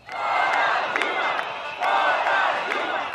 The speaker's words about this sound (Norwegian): Bort med Dilma, roper hundretusener av mennesker som demonstrerer i gatene i Brasils største by, Sao Paulo.